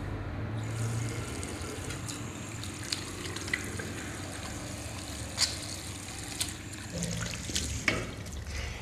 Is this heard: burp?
no